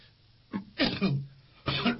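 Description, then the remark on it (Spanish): A loud fit of coughing: a short hack, then a harsher double cough, and after a brief pause another strong cough, with no talking in between. “Ah, no digo, perdonar, la tos porque es inevitable”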